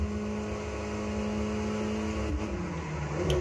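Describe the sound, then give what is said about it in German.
A video game car engine hums steadily, a constant droning tone that dips slightly in pitch partway through as the vehicle keeps driving. No one speaks. “Ja, komisch, dass hier Autos fahren, frage ich mich.”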